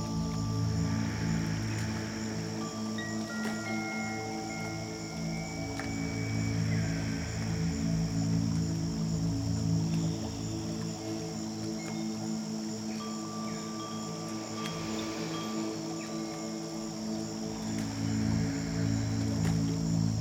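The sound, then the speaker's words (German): Gentle, continuous splashing of water blends with a soft wind rustling through tree leaves, a steady outdoor ambience with faint high chirps and no voices, holding evenly for the whole stretch. “hören das Plätschern vom Wasser und den Wind, wo geduldig durch die Blätterkronen der Bäume im Wurzelwald streicht.”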